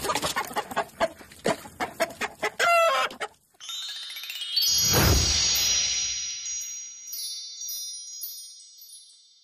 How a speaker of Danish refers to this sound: Det var en frakke høne. Det var, det var en gokkehøne.